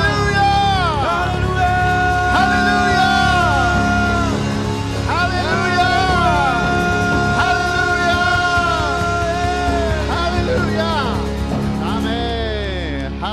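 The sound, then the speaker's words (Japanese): A large church audience shouts and cheers "Hallelujah" together in loud, overlapping voices, rising and falling in repeated swells for several seconds, with whoops and yells rising above the continuous roar. “叫びましょう”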